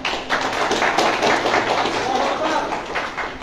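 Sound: audience clapping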